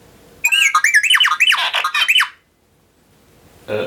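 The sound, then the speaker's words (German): The sci-fi robot droid R2-D2 chirps out a rapid, warbling run of electronic beeps and whistles, sliding up and down in pitch for about two seconds, then falls silent before a brief burst of noise. “es war R2D2, aber was sagt er?”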